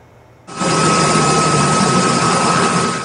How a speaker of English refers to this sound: It's an area known as the Heart of the Fraser a stretch of the river near Chilliwack where channels wander through a network of small islands and gravel bars. Global News traveled there recently by chopper